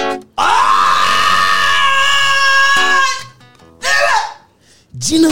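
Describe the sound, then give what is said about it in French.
A storyteller imitates a husband's scream: one long, loud, sustained cry lasting nearly three seconds, followed by two shorter strained vocal bursts, forceful. “Et qu'est-ce qu'il voit devant lui Il ne voit plus Nassar à sa femme, mais il voit une Gina Et là, il crie”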